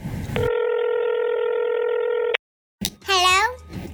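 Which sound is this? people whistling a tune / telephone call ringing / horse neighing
telephone call ringing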